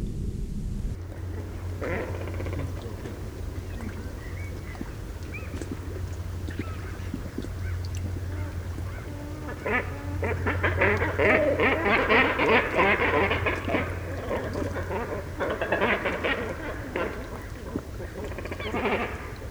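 A cormorant colony calling: many birds croaking and grunting at once in a dense, overlapping chorus that swells louder midway, with a steady low hum underneath.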